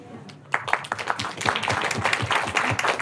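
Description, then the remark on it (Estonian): A crowd at the Opinion Festival in Estonia breaks into applause for the discussion participants after a short quiet moment, many hands clapping in a dense, steady patter that stays fairly loud until the end. “suur aitäh kõikidele osalejatele, teeme aplausi.”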